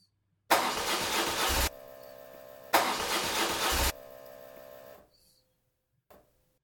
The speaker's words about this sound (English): you start to turn your friend's key and nothing happens and there's a revving of an engine, but the engine doesn't turn over.